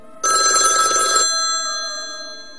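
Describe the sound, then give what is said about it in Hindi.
A single loud burst of telephone bell ringing at a call center during a night shift, bright and metallic, lasting about a second before cutting off and leaving a fading ringing tone. No voices. “मैं शाम को उठा और अपनी ड्यूटी पे चला गया रोज़ की तरह मैं कॉल सेंटर पे बैठा अपना काम कर रहा था तभी फ़ोन बजा”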